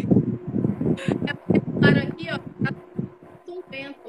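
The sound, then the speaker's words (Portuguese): An electric fan blows into the microphone, its steady low hum and breathy buffeting continuing throughout while a person talks over it. “Não, é, tá, é o meu ventilador, é o meu ventilador.”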